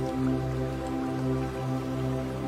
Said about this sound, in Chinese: 持续的去观想，去感觉你的身体伴随着流水的声音，不断的得到能量的更新。